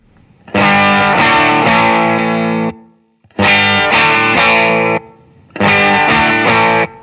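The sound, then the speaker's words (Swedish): An electric guitar played through a clean boost pedal plays three loud, ringing chords, each held for about two seconds and cut off sharply, with brief silences between them and no voices. “Det här ska vara någon form av clean boost då.”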